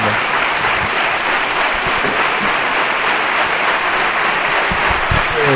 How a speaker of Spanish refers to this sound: suscita además el aplauso pues, más fuerte y más duradero de, de todo el pregón. La reivindicación histórica de, de las propiedades de Jaén hace patente también hoy aquí en el teatro.